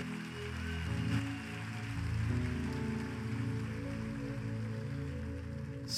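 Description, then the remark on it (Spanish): A large crowd claps loudly and continuously for several seconds, a dense wash of applause layered over steady sustained keyboard tones in the background. “A lo fuerte aplauso.”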